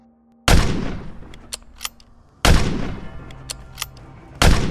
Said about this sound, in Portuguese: E os tiros vão todos na carroça, tu só escuta aqueles batendo na, na carroça e desfiando, som de madeira quebrando.